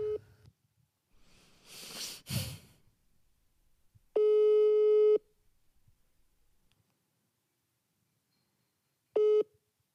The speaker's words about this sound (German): Ich rufe sie jetzt einfach mal vom Handy an das ist dann jetzt auch der Sound, den wir da haben, weil sie weiß das ja nicht.